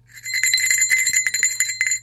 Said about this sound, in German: Eine Glocke habe ich gleich erkannt.